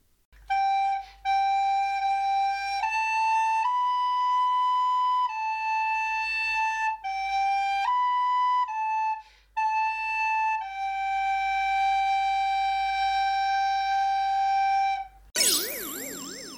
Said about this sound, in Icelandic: Þetta var blokkflauta.